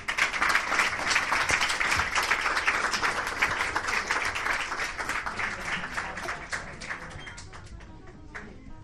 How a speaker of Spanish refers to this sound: Vamos, un aplauso, por favor.